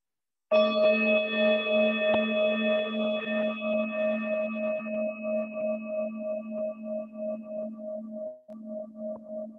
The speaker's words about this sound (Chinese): 接下来我会再一次敲响铃声，请你去仔细的聆听这个声音。